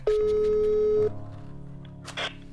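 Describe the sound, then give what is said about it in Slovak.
A single steady telephone ringback tone of an unanswered call sounds loudly for about a second, then cuts off, leaving a quieter murmur of background sound. “On má taký frajerský telefón, že to je asi škoda dvíhať, no.”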